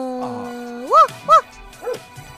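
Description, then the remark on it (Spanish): A child's voice yips like a small puppy: two quick, high-pitched barks close together, then a softer third, over a steady background hum. “¿Y vos, …, qué te gustaría ser? Un perrito.”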